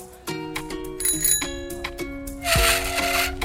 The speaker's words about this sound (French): D'accord, on entend quand je sonne, on arrête. Et là, quand je fais la sonnette, tu arrêtes ton vélo.